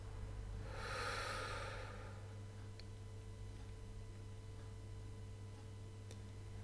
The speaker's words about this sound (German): Atme ruhig und gleichmäßig weiter. Wir atmen noch einmal tief durch die Nase ein und durch den Mund wieder aus.